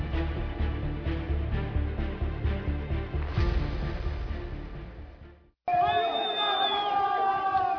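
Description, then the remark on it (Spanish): After a dense, pulsing stretch of loud sound and a brief cut to silence, a crowd of prisoners erupts in overlapping desperate shouts and cries for help after a weekend riot at the Turi detention centre in Cuenca, about 480 kilometres from Quito. “Son los gritos de personas privadas de su libertad solicitando desesperadamente ayuda luego de un motín registrado el fin de semana en el Centro de Privación de la Libertad de Turi en Cuenca, localizada a unos 480 kilómetros de Quito.”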